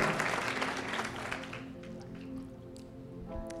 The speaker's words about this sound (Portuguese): Salva de palmas